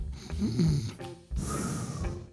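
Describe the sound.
A person imitates loud snoring, with two rough, rattling breaths and a brief pause separating them. No talking.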